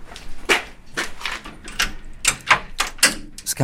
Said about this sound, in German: öffnet die Tür zu seinem Atelier in einem Pariser Vorort.